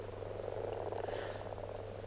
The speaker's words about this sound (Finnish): Kun lisääntymiskykyiset sammakokoirat loikkivat kutupaikoille ja alkavat kurnuttaa, se ei jää huomaamatta.